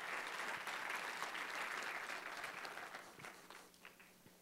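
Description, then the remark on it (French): An audience claps together in a dense, steady burst of applause for people who are going to the other side of the world to do good in the name of Jesus. The applause gradually thins out and fades, leaving a few scattered claps at the end. “Ça, je pense, que ça mérite d'applaudissements.”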